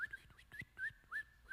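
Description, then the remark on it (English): Someone whistles an imitation of birds chirping: about five short, bright, upward-sliding tweets in quick succession, clear, with no talking. “I hear the birds chirping, and I just sit there in dead silence.”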